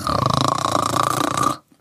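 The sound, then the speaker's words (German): A person imitates snoring with a loud, rattling throat sound, one sustained rasping burst of about a second and a half that stops abruptly. “das Schnarchen als solches, das ist ja, da passiert ja was Heftiges. Also es ist laut, anatomisch passiert was, was wenn man das im bewussten Zustand macht.”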